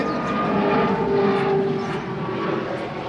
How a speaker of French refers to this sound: comme tu peux le voir, on n'est pas loin de l'aéroport. Regarde, on peut même montrer l'avion, si t'arrives à la voir. passe vraiment juste au-dessus.